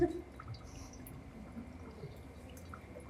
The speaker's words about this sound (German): Oh ja, frisches Wasser aus dem Biophotonen Tesla Ionisator.